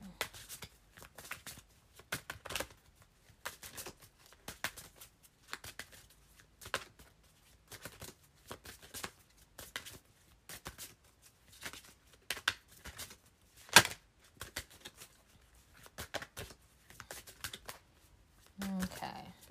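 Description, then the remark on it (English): A deck of African goddess cards being shuffled, with repeated quick riffles and soft slaps coming in irregular bursts for about twenty seconds, no talking over it. “Is there a card I need to pick out? Let's see. I mean, I've been shuffling for a minute.”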